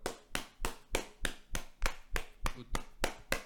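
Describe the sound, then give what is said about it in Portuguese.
About ten sharp knocks on a hard surface in a steady, quick rhythm, fairly loud, imitating a neighbour hammering in the cellar below. No one speaks during the knocking. “E quando ele mete-se com o martelo.”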